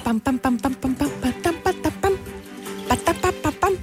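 Tense, hurried string music: rapid staccato notes hammer out a driving, repetitive rhythm at a steady, fairly loud level, with no talking over it.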